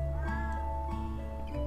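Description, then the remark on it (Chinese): A cat meows in a drawn-out, whiny tone, its voice rising and falling over a steady low background hum, with a couple of short vocal bursts toward the end. “等一下，猫咪，喂，给我停！”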